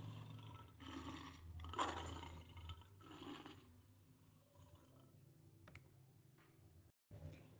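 A lion roars loudly in several deep, rasping bursts over the first few seconds, trailing into lower rumbling growls, then a short silence and a final burst.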